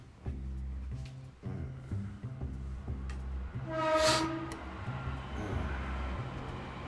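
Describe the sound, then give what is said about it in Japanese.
A train rumbles past with a steady low drone and rhythmic clacking, swelling to a loud peak midway where a bright screech or horn-like tone rises, then easing off. No voices. “いやいや、電車の音が。”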